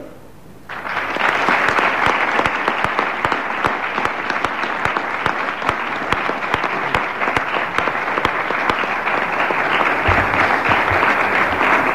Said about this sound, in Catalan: jo us demanaria un fort aplaudiment per ell.